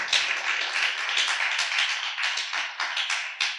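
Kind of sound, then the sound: crowd, audience clapping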